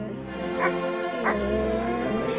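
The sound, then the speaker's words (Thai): A plump house dog barks twice, about half a second apart, with a whiny, yipping edge between the barks, as it runs playfully into a wild dog's den in a village. Moderately loud, with no talking. “ในหมู่บ้านแห่งหนึ่ง สุนัขบ้านที่อ้วนตุ้ยนุย้ย ได้วิ่งเล่นเข้าไปยังรังของสุนัขป่าที่พร้อมกล่อง”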